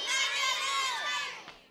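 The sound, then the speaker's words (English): A group of children yells out at once the Christmas presents they got this year, a loud, jumbled burst of overlapping voices that holds for a moment and then trails off. “Okay, on the count of three, I want you to yell out what you got this year, okay, as a Christmas present, okay?”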